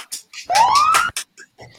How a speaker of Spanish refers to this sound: ha habido una carrera de eh, motos aquí en calle.